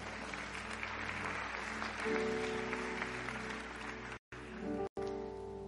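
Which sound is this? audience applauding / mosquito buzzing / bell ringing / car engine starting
audience applauding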